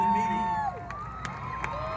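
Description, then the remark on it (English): A large crowd stretching hundreds of yards cheers in a steady roar. A whistle-like tone rises above it at first, then falls away, and a few sharper shouts poke through the continuous din. “God, uh, I love a crowd.”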